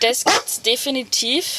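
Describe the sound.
The speaker's own large dog barks a few times in the background, the short gruff barks partly buried beneath a person talking into the microphone.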